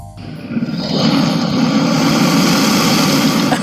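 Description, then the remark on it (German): A crocodile's call: a deep, loud, continuous rumbling bellow that swells in within the first second and holds steady, engine-like, with no talking. “Es ist ein Krokodil.”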